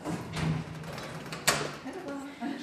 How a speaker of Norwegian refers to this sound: Selen Birkiye åpner døren til Istanbuls statsteater.